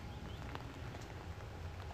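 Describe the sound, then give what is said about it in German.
Steady rain patters on an umbrella on the Wuhle-Wanderweg hiking trail, a dense, even drumming of many drops with no voices, continuous and fairly soft throughout. “Ja, mit Regenschirm geht das auch. Ich muss das mal ausprobieren, wie das Handy das so aushält.”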